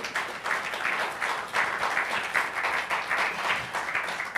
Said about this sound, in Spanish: Dele un aplauso al Señor, por favor.